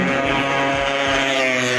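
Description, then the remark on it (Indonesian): A motorcycle engine roars loudly, a steady buzzing drone with strong harmonics that holds for the whole moment as the bike speeds along the street. “motor anjing motor anjing ah, ini jalanan fit jadi terserah orang mau lewat bagaimana laju anjing”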